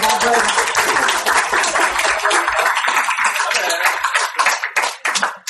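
A live audience bursts into applause, a dense wash of many hands clapping at once, loud, thinning slightly toward the end as individual claps become more distinct.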